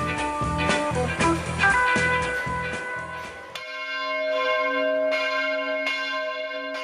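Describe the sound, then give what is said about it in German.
Church bells ring out loud, striking ten o'clock at the Weinplatz by the Limmat in Zurich, several bells clanging together at first, then settling into single deep strikes about once a second over a long, humming resonance. “hörst du die Glocken läuten? es läutet 10 Uhr.”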